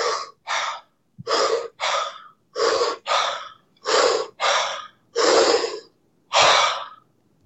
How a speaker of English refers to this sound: for you know people who struggle with nasal breathing at first, you know, we use something called a 579 where we'll give people like five mouth breaths where it's just like